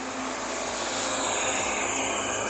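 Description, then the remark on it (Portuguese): A bus passing by, its engine a loud, steady roar with broad hissing noise and a low rumble underneath, continuous throughout with no voices. “passando um ônibus aqui”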